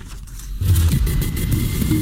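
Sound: radio segment jingle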